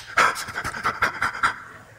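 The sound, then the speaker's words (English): A person imitates a child huffing and puffing after crying, with about eight quick, breathy pants in a steady rhythm, moderately loud, with no talking. “I know it sounds weird if you're just listening, so I'm just making faces of a kid who's, who's huffing and puffing after crying.”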